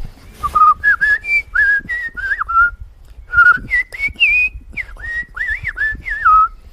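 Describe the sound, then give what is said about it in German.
A person whistles an imitation of a relaxed blackbird's song: two loose runs of fluting, warbling notes that slide up and down, with a short pause between them, clear, with no talking. “Wenn sie das macht, das ist der Gesang, ne, früher kennt man, mhm.”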